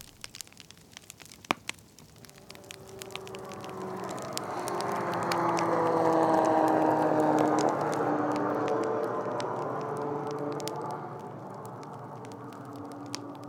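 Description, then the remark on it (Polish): A fireplace fire crackles steadily, sharp pops and snaps scattered over a soft, rising and falling roar of flames, moderately loud, with no one speaking. “Mam nadzieję, że już słychać kominkowe dźwięki w tle i możemy zaczynać.”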